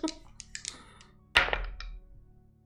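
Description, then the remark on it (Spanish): Dice rattle and click briefly, then tumble onto a hard surface with a sharp clatter that settles quickly. No one speaks. “Lanza tus dados bravos”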